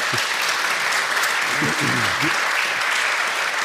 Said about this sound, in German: So schnell, so schnell kriegt man Beifall in München.